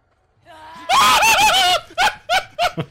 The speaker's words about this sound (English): Here's just a taste of a few screams in a very short section of the game. All right, so here you go.